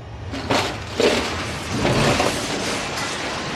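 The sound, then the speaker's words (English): A metal burrowing machine breaks up through the stone floor of a central hall: a heavy, rumbling crash of breaking stone, with sharp cracking bursts and grinding debris tumbling over a dense, continuous roar, loud throughout. “They break through the floor of the central hall.”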